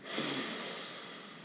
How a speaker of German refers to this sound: Und wenn dir das alles zu viel ist, dann atme jetzt mit mir bewusst noch dreimal ein und dreimal aus. Wir atmen ein.